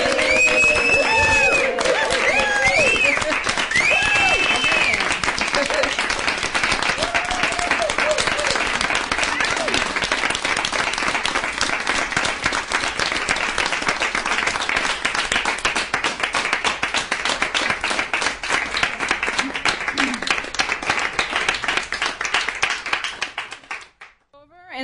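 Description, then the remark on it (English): A studio audience at a True Tales Radio show breaks into loud, sustained applause as thanks for the sound engineer and audio person, with cheers and whoops rising over the dense clapping, continuing steadily for about twenty seconds before cutting off abruptly. “But First, just please join us in what we think will be fitting for our um, sound engineer and audio person a good, loud, um, sound version of thanks.”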